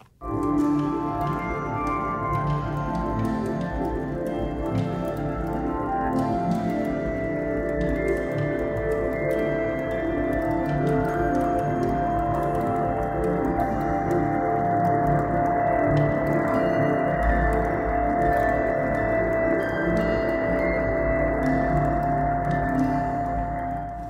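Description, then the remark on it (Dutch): A sonified landscape image plays as a dense, steady wash of layered electronic tones, low hums stacked under higher sustained pitches that drift and shift slowly, with no speech throughout. Parts high in the image give high tones, lower parts give lower tones, as the sound moves across the landscape. “En dat allemaal samen, als je over dat landschap heen loopt, hoor je dus een heel variërend geluid.”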